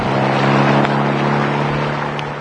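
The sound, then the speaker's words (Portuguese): A truck engine is started and the truck pulls away abruptly, droning loudly and steadily, its low rumble holding constant with a broad rushing noise over it, easing slightly toward the end. “Ligou o motor e arrancou rispidamente.”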